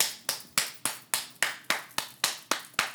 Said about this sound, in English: So I guess Valentine's Day is also a way to, oh, my podcast listeners, I'm like clapping my hands, you know, like hurry up.